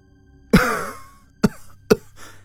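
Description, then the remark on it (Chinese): A man who has just woken and is still trying to sit up in bed has a harsh, violent coughing fit: one long raspy, strained cough followed by two sharp, loud hacking coughs in quick succession, with no speech. “他还没能从床上坐起来，就发出一串剧烈的咳嗽声，哎，胸口好痛啊！”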